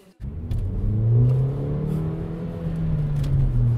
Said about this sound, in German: Also da hört man halt den, den Sportwagen.